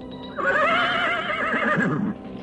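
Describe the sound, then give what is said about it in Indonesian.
A horse neighs once, loud: a long, shaky whinny with a quavering, wavering pitch that lasts about two seconds before fading out. No one speaks. “Dan kedua, kalian telah mencuri kuda kami.”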